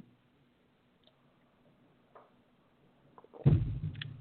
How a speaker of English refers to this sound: Please excuse me while I sip the last sip of my coffee.